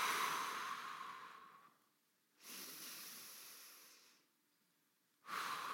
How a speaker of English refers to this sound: Uh, you can open your eyes, you can close your eyes, however you want, but just do that magical thing called breathing. Just continue to take long, slow, deep breaths in through your nose and then out through your mouth.